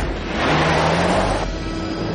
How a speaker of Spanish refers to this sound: William se monta en el coche y arranca.